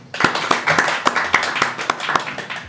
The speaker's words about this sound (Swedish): Och alla, drak, alla som gillar drakar applådera. Ja. 50-50, ja. Det är lite patraskar längst fram som tycks gilla rymdskepp.